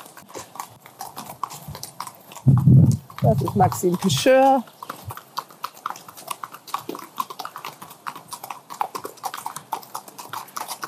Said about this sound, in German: Und da kommen die Pferde jetzt von der Trainingsbahn.